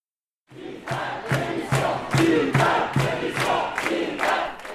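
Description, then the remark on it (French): A protest crowd at the Sorbonne in Paris chants loudly in unison at a 17 November demonstration against the multi-year research law, with voices rising in steady, rhythmic bursts roughly twice a second. A dense murmur of the crowd fills the gaps between the beats. “Le 17 novembre dernier, je suis allée me promener du côté de la Sorbonne où avait lieu une manifestation contre la loi pluriannuelle pour la recherche.”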